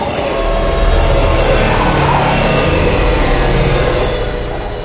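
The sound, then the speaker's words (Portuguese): A maglev train of around 250 cars roars past up close at over 500 km per hour in a tall tunnel, a loud sustained rush of rumbling and wind noise with a powerful gust of air, holding steady for several seconds before easing slightly at the end. “Quando o trem passa, ele traz consigo uma lufada muito mais poderosa de ar que quase derruba vocês que estão perto da porta.”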